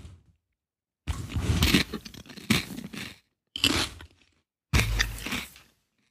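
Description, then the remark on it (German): Crunching and chewing on a crisp seaweed snack: four loud, crackly bursts of bites separated by short pauses, with no talking. “Es hört sich an wie so Esspapier”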